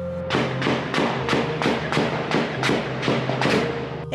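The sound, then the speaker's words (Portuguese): A rapid, steady series of about nine sharp gunshots from fighting between drug traffickers, each ringing out with a short echoing tail through the Catumbi neighborhood in the central region of the city, over a constant low hum, with no one speaking. “O som da guerra entre traficantes ecoa pelo bairro em plena região central da cidade.”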